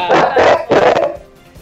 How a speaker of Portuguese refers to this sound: Sim. É o cachorro? Ai, ai. Tem um cachorro.